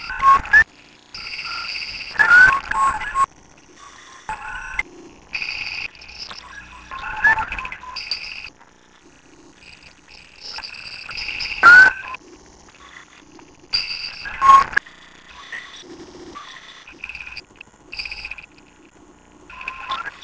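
The artist-made synthetic call of an artificial insect-like creature: bursts of electronic chirps, clicks and croak-like tones repeating in an irregular rhythm, clear, with no voices.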